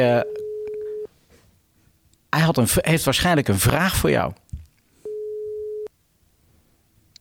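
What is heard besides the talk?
telephone call ringing tone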